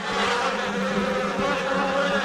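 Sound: swarm of bees buzzing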